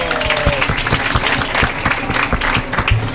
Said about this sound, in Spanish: Gracias por venir. Muchas gracias. Aplausos.